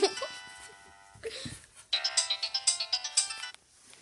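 A mobile phone ringtone plays a bright, electronic melody of quick repeated beeping notes, pausing briefly before a second burst of rhythmic chimes, fairly loud and close.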